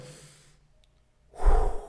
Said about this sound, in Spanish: haces una respiración profunda